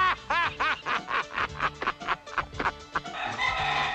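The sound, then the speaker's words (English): A rooster crows and clucks in a quick run of sharp, squawking calls, fairly loud, ending in a rougher, noisier burst of flapping-like sound. “And he knocks off the young rooster.”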